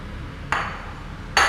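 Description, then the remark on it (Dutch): Two bright glassy clinks, spaced under a second apart, as glasses are pushed into a cupboard; the second is a little louder, with a faint low hum underneath and no talking. “Ik wil de glazen in de, eh, verder duwen in de kast, maar ondertussen wil ik niet wil ik mijn rest in de gaten houden.”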